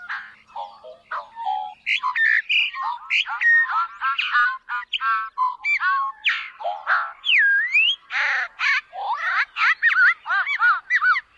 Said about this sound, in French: écoutons le chant du goglu commun.